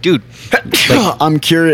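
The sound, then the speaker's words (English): A single sharp, explosive sneeze bursts out, loud and brief, wedged between bits of a man's casual speech. “bless you.”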